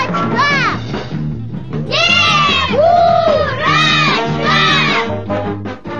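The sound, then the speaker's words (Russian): At a New Year celebration, a crowd of mostly children's voices calls out the name Snegurochka in unison several times, loud and sing-song, with rising and falling pitch and cheering excitement. “Так давайте же все вместе с вами позовем Снегурочку.”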